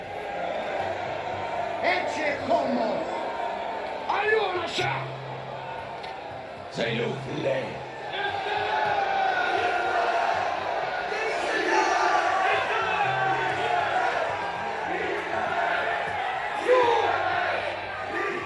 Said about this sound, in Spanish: Pero ellos insistían a gritos reclamando que fuera crucificado, y el griterío se hacía cada vez más violento.